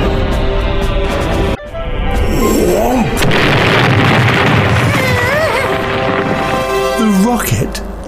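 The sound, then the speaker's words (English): A rocket blasts off with a loud, steady roar and deep rumble, briefly cutting out before surging again, with whooshing noise and swooping whistle-like tones riding over the blast. “The rocket blasted away. It rushed and roared through space.”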